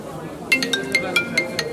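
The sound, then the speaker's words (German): A mobile phone ringtone starts up and chirps in a quick, rhythmic run of bright electronic tones, fairly loud, with faint voices or murmur underneath. “Hast du dein Handy ausgemacht?”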